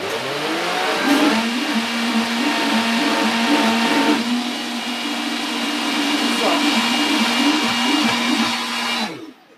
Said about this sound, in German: Macht man wieder in den Mixer rein und wie ich schon wieder erwähnen möchte, bitte immer am besten mit der eigenen äh, Kräuterwiege das Ganze schnippeln statt den Mixer, aber das ist jetzt die einfache Version.